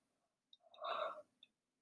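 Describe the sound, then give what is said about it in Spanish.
A single drawn-out yawn, a breathy voiced swell lasting about half a second, with faint mouth clicks just before and after. It is fairly soft, with no talking. “Y mira, yo lo siento, voy a bostezar porque es que no puedo más.”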